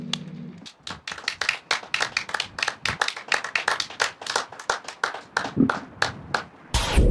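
Loud, sharp hand claps repeat in a quick, slightly uneven rhythm for about seven seconds, sounding like a small group applauding, with no one talking.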